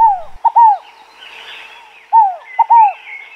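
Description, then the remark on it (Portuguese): A scaled dove (fogo-apagou) sings its soft, hollow three-note phrase twice, clear, with a short pause between repetitions and faint background ambience. “Esse é o canto da rolinha Fogo Apagou”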